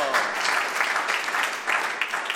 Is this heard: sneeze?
no